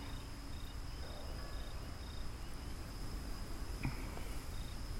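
Cold nighttime forest ambience: a steady high cricket trill with intermittent pulsing chirps over a low, rustling background, and a brief sharp call or snap near the end.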